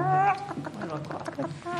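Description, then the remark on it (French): A man's voice imitates a clucking hen, with a drawn-out squawk followed by a quick run of choppy clucks, fairly loud, with a murmur of other voices in the background. It is French LR deputy Philippe Leray imitating a hen during his speech on the pension reform. “Le député Philippe Leray, LR, a imité une poule lors de son discours durant la réforme des retraites.”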